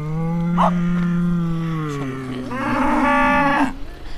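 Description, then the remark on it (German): Cows on green pastures at a farm low in long, drawn-out moos, one deep bellow sliding down in pitch followed by a brighter, louder call, with no talking. “Links und rechts sind grüne Weideflächen, auf denen Kühe und Schweine stehen.”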